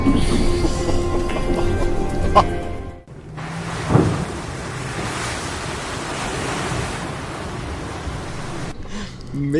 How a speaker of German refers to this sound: ja, aber dass der Bus dann auf einmal aufs Wasser fährt, war für mich auch neu. Und äh, dieser Moment, wo er da eingetaucht ist und einmal diese Wasserwelle vorne gegen die Frontscheibe geknallt ist, das war schon, war schon ein cooles Erlebnis, ja.